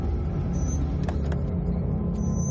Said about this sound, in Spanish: Un coche patrulla llega.